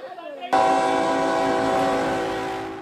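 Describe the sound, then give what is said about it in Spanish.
A moving freight train full of migrants, advancing after hours of waiting, blasts its horn loudly in one long, steady, harmonic chord that holds for over two seconds, fading slightly at the end, after a brief murmur of voices. “Fuimos testigos de cómo después de horas avanzaron los trenes llenos de migrantes.”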